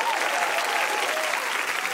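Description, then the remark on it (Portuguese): A crowd claps steadily and loudly, a dense wash of applause with no pauses, a few faint voices mixed underneath. “Vamos aplaudir”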